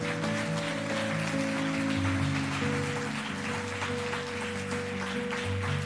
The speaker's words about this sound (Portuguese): Dê um aplauso bem forte ao Rei da Glória.